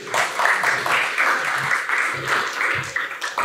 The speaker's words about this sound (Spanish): Eh, un aplauso, es buena clase.